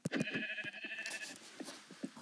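A sheep that has been following someone bleats once in a wavering, nasal cry lasting over a second, followed by scattered soft clicks and rustling at moderate volume.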